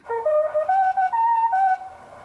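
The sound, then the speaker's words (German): The Bayern 3 radio traffic-report melody: a bright, whistle-like melody of about eight stepped notes rising and falling over two seconds, played alone at a steady, moderate volume. “Erst die Bayern 3 Verkehrsmelodie,”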